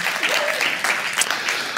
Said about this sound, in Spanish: Así que les aplaudo yo a usted, gracias. Pueden aplaudirse ustedes si así lo consideran.